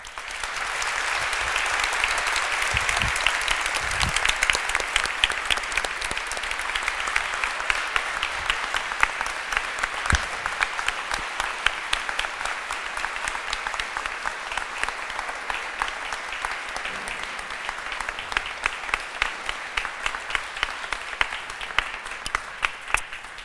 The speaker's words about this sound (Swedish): Varmt välkommen Nooshi Dadgostar, Annie Lööf, Jimmy Åkesson och Richard Kroneberg. Vänligen ge dem en stor applåd.